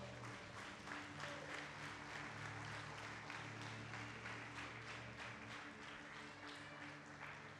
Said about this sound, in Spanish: Dale esa ofrenda de palmas al Señor.